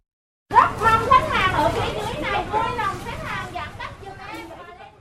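Busy crowd noise of many overlapping voices, including children, in a constant babble, as shoppers pack the Danavimax supermarket on Phan Dinh Phung street, Hai Chau district, Da Nang, Vietnam, at 9 a.m. to stock up on food, with no single speaker standing out.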